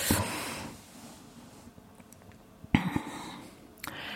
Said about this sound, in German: Ich muss man einen Schluck Wasser nehmen.